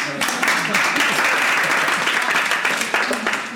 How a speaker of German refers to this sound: Die erste Premiere ist, wir sind mit Publikum. Ihr dürft euch jetzt einmal melden. Ihr, ihr, ihr dürft auch einmal klatschen, wenn ihr wollt.